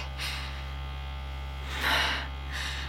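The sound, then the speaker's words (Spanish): A vibrator buzzes with a steady low electric hum, fairly loud, its head stroked slowly over underwear, its tone roughening and brightening in three brief swells as it presses against the fabric. No voices. “cabeza del vibrador sobre mis bragas con caricias tortuosamente lentas.”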